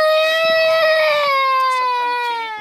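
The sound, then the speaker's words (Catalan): A young girl wails loudly in one long, high, sustained cry whose pitch slowly sinks, with faint background sounds underneath, as her parents say goodbye before climbing Kilimanjaro. “L'expedida va ser dura, la veritat que va plorar molt, molt rato.”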